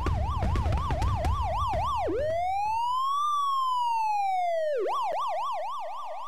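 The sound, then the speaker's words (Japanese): A police car siren wails loudly as police arrive at an amusement park, starting with a rapid yelp, shifting into a long slow rise-and-fall wail, then returning to the fast yelp, with engine rumble underneath at first. “ようやく警察が来たみたいだな。”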